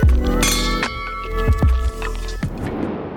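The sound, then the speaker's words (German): Glasses clink together in a toast, a few bright ringing chimes with sustained tonal resonance, heard alone without any talking. “Hoch die Gläser”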